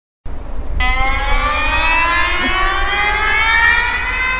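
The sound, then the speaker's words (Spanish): A loud, steady alarm siren wails continuously after a brief burst of noise, its harmonic tone sustained and slowly drifting in pitch over a low rumbling background, with no one speaking. “Exacto, así que bueno, a partir de ahora suena la alarma.”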